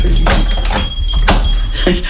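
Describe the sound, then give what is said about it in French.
A dog moves about near a door, with a few sharp knocks and clicks, a faint metallic jingle, and scuffling in between over a steady low background hum. “Le plus qui m'ennuie, c'est pour mon chien.”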